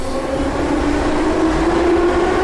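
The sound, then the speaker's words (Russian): A metro train rumbles steadily and loudly, a dense continuous roar with a droning tone rising slightly, no voices present. “Она для тех, кто не боится темноты, не страдает клаустрофобией, способен вытерпеть духоту летом и грохот поездов круглый год.”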